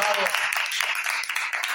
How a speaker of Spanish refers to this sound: Y podemos despedirnos también con un aplauso eh, inclusive, en plan también para todos los que se han ido, rollo los vascos, no sé qué. Oh, pues sí, un aplauso, pero de verdad.